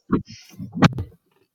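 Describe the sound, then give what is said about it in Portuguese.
Someone opens the door of their car: a low thump, a sharp latch click, then brief mechanical rattling and shuffling. The whole thing lasts about a second, followed by quiet. “Agora vai ter que ter um corte abrir a porta do meu carro aqui. Eu não sei se apareceu Ai, ah, um barulho, abrir.”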